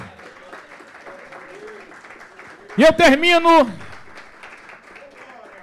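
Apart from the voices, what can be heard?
audience applauding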